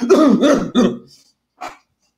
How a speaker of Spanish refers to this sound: O sea, yo lo que hago es toser.